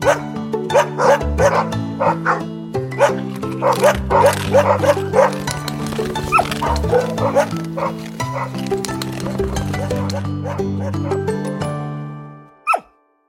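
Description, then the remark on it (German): A dog barks over and over in quick, uneven, loud bursts over a steady musical backing, before everything fades out at the end. “Es ist der Hund.”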